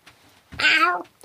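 tomcat meowing

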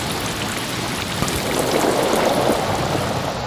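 rushing stream water

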